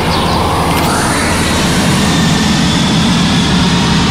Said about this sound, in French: D'après le bruit d'accélération que font les moteurs, on peut affirmer que c'est un avion qui décolle. Il est à pas plus de 300 mètres du sol, ce qui confirme que c'est une zone urbaine importante.